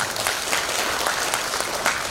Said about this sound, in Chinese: 同意的老板举手，热烈掌声再次确认。